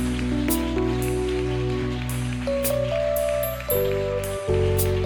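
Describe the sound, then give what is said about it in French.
A crowd claps and cheers in a steady, dense wash of applause, given as an acclamation offering to Jesus, the Holy Spirit and God the Father, with sustained keyboard chords droning underneath that shift pitch a few times. “Est-ce qu'on peut offrir une offrande d'acclamation à Jésus, au Saint-Esprit, à Dieu le Père”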